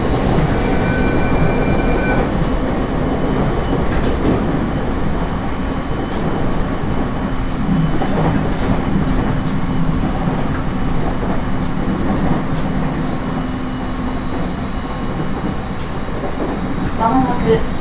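A passenger train on the Tohoku Main Line between Sendai and Kogota, Japan, rolls steadily along the rails, a loud, continuous rumble with faint rhythmic clatter and a sustained mechanical hum throughout, recorded from inside.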